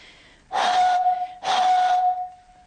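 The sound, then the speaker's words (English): Two breathy blows across the top of an almost full milk bottle of water, each producing a steady, hollow whistling tone under a rush of air, fairly loud, with a short pause between. “So to make this vibrate, instead of um, putting my finger around the bottle top, what I'm going to do, what most people would do when they play this, is blow across the top.”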